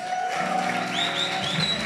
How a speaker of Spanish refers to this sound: Démosle un aplauso a este hombre.